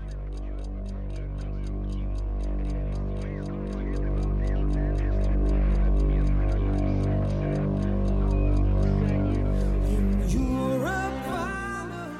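A steady, clock-like ticking opens a piece of music, pulsing evenly over a deep sustained synth drone for about ten seconds before a voice starts speaking at the end.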